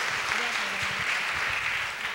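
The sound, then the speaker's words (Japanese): A steady wash of audience applause fills the whole stretch, dense and even, with some faint voices murmuring underneath. “はいどうもありがとうございます皆さん拍手をお願いしますはい”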